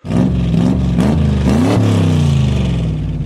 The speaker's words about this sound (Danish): Fru Jørgensen kører hen og parkerer tæt ved, hvor faren er ved at starte den gule sportsvogn.